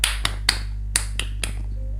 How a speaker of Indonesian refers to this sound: kita tepuk pramuka lagi ya tepuk pramuka